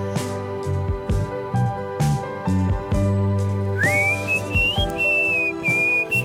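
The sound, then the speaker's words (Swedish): High-pitched human whistling enters partway through, carrying a smooth, wavering melody in long held notes above steady instrumental music with a clear low bass line. “Det är hög, hög vissling, alltså svårt.”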